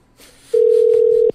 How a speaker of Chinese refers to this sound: 好，接下来我要拨下一通电话。